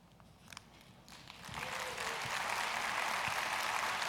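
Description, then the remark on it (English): Applause from a crowd swells after a quiet first second and a half, rising into steady, dense clapping that holds loud and even to the end, with no voices over it. “And do you realize, even as you're clapping right now, nations around the world just heard that.”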